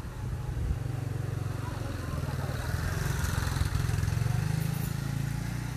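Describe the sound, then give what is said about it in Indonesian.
A motorcycle engine hums steadily for several seconds as it passes by a river near a house, its low throbbing rising slightly, with a constant wash of outdoor background noise underneath. “saya sedang berdiri di sungai dekat rumah saya dan ada motor sedang lewat saya cut sebentar”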